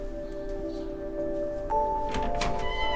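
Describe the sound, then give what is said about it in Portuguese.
A shop door is closed for the final time at almost 7 o'clock. It swings shut with a muffled thunk and a brief rattle over a steady electrical hum, followed by a faint lingering ring. “Então está agora na hora de fechar a porta, não é? Está, exatamente. São quase 7 horas, vamos fechar a porta.”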